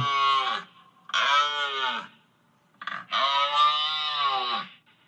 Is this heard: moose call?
yes